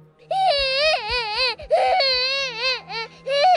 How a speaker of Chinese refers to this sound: 据说他偶尔能在走廊尽头的卫生间那里听到小孩的哭声。